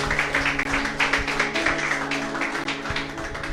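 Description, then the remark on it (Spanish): A church audience claps their hands for the Lord after a closing prayer, many overlapping sharp claps forming a dense, continuous applause that stays fairly even in loudness throughout, with no voices heard. “Fuertes palmas al Señor Iglesia.”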